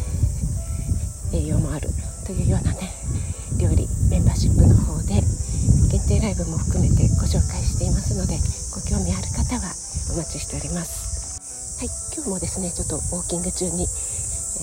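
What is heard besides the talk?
cicadas buzzing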